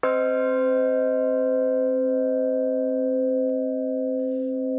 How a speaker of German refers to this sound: Und die Form der Glocke ist quasi so entwickelt worden, dass man Intervalle hört, die irgendwo ja, in unserem Gehör sich harmonisch anhören. Wenn wir also unten die Glocke anschlagen, den Ton kennen wir.